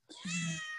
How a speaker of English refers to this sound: That is my cat.